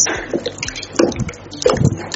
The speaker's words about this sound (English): once you notice that it's becoming very jelly like you make sure you keep dissolving it So I'm going to pour it straight away into it.